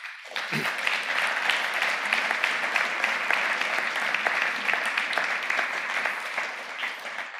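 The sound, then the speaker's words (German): A church audience breaks into steady, sustained applause to welcome their former pastor, many hands clapping in a dense, even wash that holds at a consistent loudness for several seconds. “Unsere ehemalige Pastorin, gibt ihr mal einen Applaus.”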